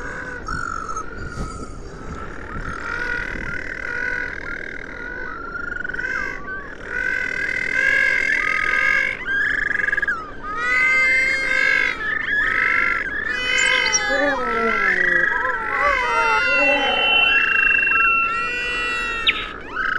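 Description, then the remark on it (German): New Zealand little penguins calling without pause, a rhythmic run of harsh, braying, buzzy notes rising and falling in pulses. Some cries rise into higher squeals. Fairly loud, with no talking. “Der Vogel der Woche, der neuseeländische Zwergpinguin.”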